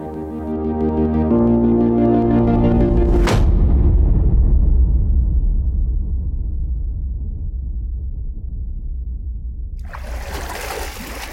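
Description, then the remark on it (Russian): A steady low droning tone gives way to a single loud explosion as a steamship crashes into the shore at full speed and blows up, followed by a long, deep rumbling roar that slowly fades. A hissing, watery rush starts near the end. “Яркая вспышка озарила округу, с громадным грохотом разбрасывая в сторону яркие огни, будто фейерверк, корабль взорвался”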